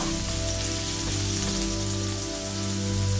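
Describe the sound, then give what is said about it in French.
Half of the chopped garlic sizzles steadily in two tablespoons of hot sunflower oil in a pan preheated over high heat and is stirred briefly, a continuous crackling hiss like light rain, with a low electrical hum running underneath and no talking. “Dans une poêle préchauffée à feu fort, je mets deux cuillères à soupe d'huile de tournesol quand l'huile est chaude, je mets la moitié de l'ail haché. Je remue brièvement”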